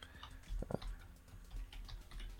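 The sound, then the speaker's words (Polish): Rapid, uneven clicking of keys on a computer keyboard, fairly quiet, with a few sharper taps standing out and no voices, as someone types an entry into an online survey form. “Teraz posłuchajcie sobie mojego klikania po klawiaturze.”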